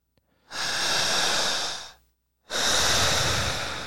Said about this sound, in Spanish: Empezamos a respirar. otra vez. Otra vez. Poquito más rápida.